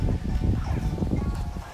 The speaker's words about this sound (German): Ich bin mir nicht sicher, ob man mich gut hört. Denn der Wind ist ziemlich laut bei den Blättern und Bäumen hier.